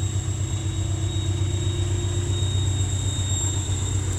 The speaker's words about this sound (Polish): Tu sobie pociąg jedzie jakiś, zobaczcie.